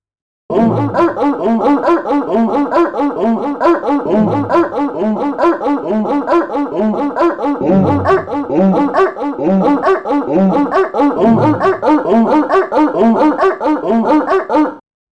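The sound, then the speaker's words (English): A tune built from sampled dog barks, the pitched yelps firing in a quick, steady rhythm and stacking into a loud, busy melody that runs without pause. “so this one, question four, is on dog, and it sounds like this.”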